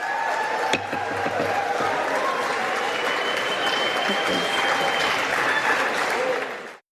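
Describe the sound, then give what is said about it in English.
A large group of Democratic legislators applauds and cheers steadily after a bill passes by 217 votes to 213: dense clapping with scattered shouts and whoops, sustained at a loud level for several seconds before cutting off abruptly. “Okay, what they're cheering is just the fact that they can make campaign ads out of this going into the midterms.”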